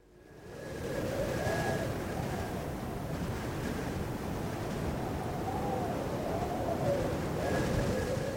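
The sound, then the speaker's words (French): A steady harmattan wind, a hot continental trade wind, roars continuously after fading in, a dense rushing noise with a faint high whistle drifting through it; no voices are heard. “Il ne s'agit pas de n'importe quel vent, c'est l'armatan, un alizé continental dont le souffle brûlant renvoie malheureusement à un fléau qui touche de nombreux pays du Sahel, la désertification.”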